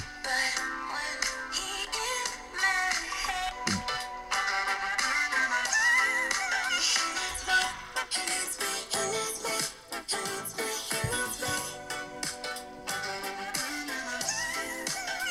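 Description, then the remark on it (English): A bright, busy pop song plays steadily from a phone for the whole stretch, with layered melody and a punchy beat, sounding slightly thin. No one talks over it. “I just thought I would play it off my phone to save yeah. a little bit of work, but there you hear it.”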